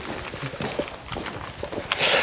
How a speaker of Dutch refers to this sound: Wij lopen de trap af.